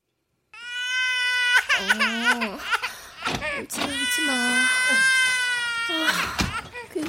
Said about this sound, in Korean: 자, 애기 이리 주고. 자. 어이구, 어이구, 이리 와. 어이구. 왜 울어? 응? 엄마 젖이 모자라?